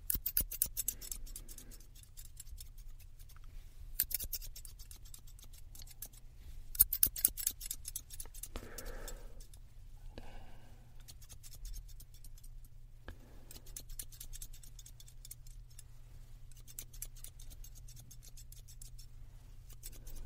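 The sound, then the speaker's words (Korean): Scissors snip through hair in quick bursts of crisp clicks for a light layered haircut, pausing briefly between clusters of cuts, over a steady low background hum with no one speaking. “이렇게 일방적으로 자른 게 아니라 진짜 좀 가벼운 느낌으로 레이어드 컷 할 거예요.”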